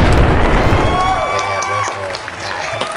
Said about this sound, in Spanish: Se va a poner ahí en la edición, así va a haber aplausos. y una explosión bien mamona.